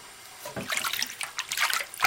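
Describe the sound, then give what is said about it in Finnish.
Water splashes and sloshes lightly as burbot are rinsed to wash surface blood off, with irregular bursts of watery trickling and dribbling over about two seconds, moderately loud, no one speaking. “Ja ihan tämmönen kevyt huuhtelu, että ei se ihminen, muuta kuin veret vaan mitä tässä on pinnalla vähän että kalaahan ei saa silleen liottaa, että se ei tykkää siitä.”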